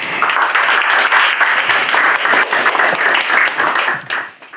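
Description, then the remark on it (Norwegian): A crowd applauds steadily, a dense wash of many hands clapping at once, holding loud and even before tapering off toward the end, applause for Kristina Leganger Iversen. “Gi i hvert fall en applaus til Kristina Leganger Iversen.”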